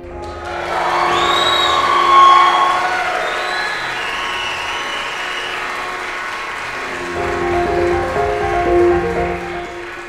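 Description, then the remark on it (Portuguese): A crowd applauds and cheers steadily for about ten seconds, with whoops and high shouts rising over dense clapping, swelling early and again near the end. “Primeiro, eu quero uma salva de palmas que ele merece.”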